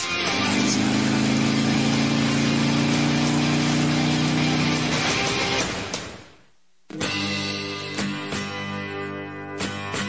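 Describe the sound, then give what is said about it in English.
A motorcycle engine idles loudly with a steady, throbbing low rumble. It cuts out briefly for a moment, then starts up again and keeps running, with no voices present. “Brought to you by Harley Davidson Motorcycles.”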